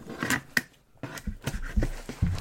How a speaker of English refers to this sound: I'm just hacking away at it now with scissors.